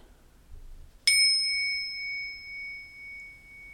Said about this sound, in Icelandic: Hlustum. Það róan mig að að klingja bjöllunni.